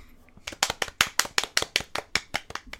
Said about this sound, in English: fucking clap.